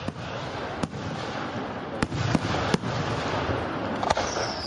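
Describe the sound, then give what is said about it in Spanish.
Fireworks going off for the Fourth of July (Independence Day): about six sharp, loud bangs at irregular intervals over a constant broad rushing noise, with no voices heard. “hay gente que va a ver los juegos artificiales”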